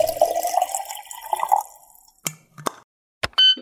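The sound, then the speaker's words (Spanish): Hot water pours into a mate gourd with fresh yerba for about a second and a half, the gurgle rising in pitch as it fills, followed by a few sharp drips and small clinks. “Yerba renovada y agua lista para volver a tomar unos ricos mates”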